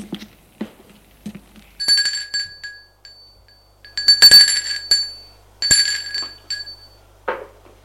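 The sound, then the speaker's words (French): A bell rings in three short bursts, each a bright, high metallic tone that trails off, with a few soft clicks and thumps before and after, as Auguste rings at his office in a five-storey 19th-century building on avenue Velasquez at 10:30. No one speaks. “À 10h30, Auguste sonne à son bureau.”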